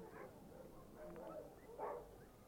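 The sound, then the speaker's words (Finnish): A dog barks a few times, short separated woofs over a faint background hiss, with no one talking. “Sepä merkillistä. Koiran haukuntaa.”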